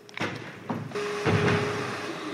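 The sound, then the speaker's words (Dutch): A door in a large grey wall is opened as people walk through into the packing and production hall of a farm that grows vegetables and raises fish. A few knocking thuds come from its handle and frame, followed by a steady low hum from the hall beyond. No one speaks. “in a hele grote grijze muur, an onopvallende deur and dan ga je daar doorheen.”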